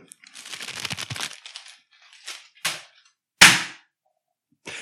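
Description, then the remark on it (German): Paper rustles and crinkles for about a second, then after a pause a couple of sharp slaps ring out, the last one loud and crisp, as a thrown tissue smacks hard onto the floor in a tissue-toss game. “Das hat richtig hart geklatscht.”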